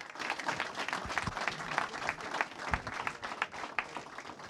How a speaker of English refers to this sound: Ladies and gentlemen, a round of applause for Greg Sheridan and Peter Kurti.